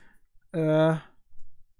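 A short, fairly loud burst of rapid plastic clicking from the plastic hinges adjusting part of a blue device, which moves on a thin aluminium plate, lasting about half a second and blurring into a buzzy ratchet, followed by faint rustling.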